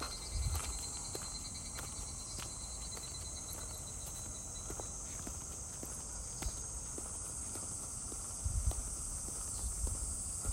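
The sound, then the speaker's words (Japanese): A steady, shrill drone of cicadas at a shrine just before sunset fills the air without a break, while slow footsteps crunch, with a few louder low thumps. “綺麗に音取れるといいなまた来年もラジオトークやってることを願って毎年セミの音取れたらいいな”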